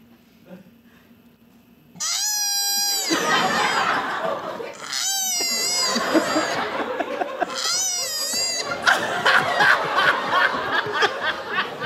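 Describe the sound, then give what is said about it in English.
A koala bellows loudly after a brief quiet start, a continuous rasping, snorting drone broken by three wavering, whining high cries, with no one talking. “Uh, guys, koalas are so dumb, they even sound dumb. Listen to this.”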